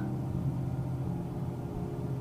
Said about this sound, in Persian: ماشینم رو روشن میکنم زوزه میکشه و میلرزه شکوهی در زوزش نیست صدای خرج میده وقتی جیبت زوزه میکشه راه میافتم دنده یک به دو